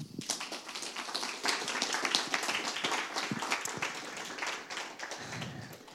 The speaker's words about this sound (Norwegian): Da gjenstår det bare å ønske de velkommen og gi de en varm applaus.